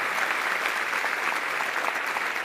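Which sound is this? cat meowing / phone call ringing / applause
applause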